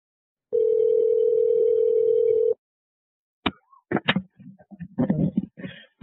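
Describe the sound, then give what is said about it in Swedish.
A single steady telephone ring tone sounds for about two seconds, then falls silent before a voice picks up the line, as a call connects to an emergency dispatch center on the night of 13 September, in a somewhat poor-quality recording. “Och ni ska nu få lyssna lite på delar från samtalet som kommer in till larmcentralen den där natten 13 september.”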